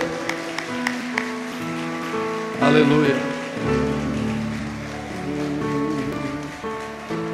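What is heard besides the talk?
audience applauding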